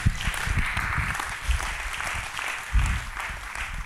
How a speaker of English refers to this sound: Come on, give God a clap offering.